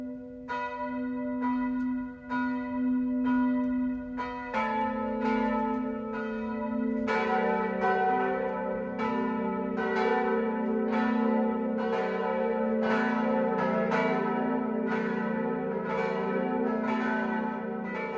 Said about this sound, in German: Es ist 12 Uhr. Das Mittagsläuten kommt heute aus Eusenheim in Unterfranken.